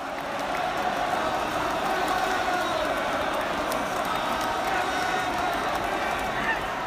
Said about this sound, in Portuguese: Agora, essa última música deu para chutar de quem é? Mohamed Salah. Essa é a musiquinha que a torcida canta para ele.